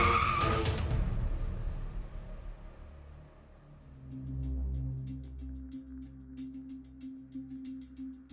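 A Chrysler car skids in a bend on a mud-covered road after days of rain and ends up in a ditch, a sharp burst of scraping at the start giving way to a low engine rumble and crackling, gritty noise, with no talking.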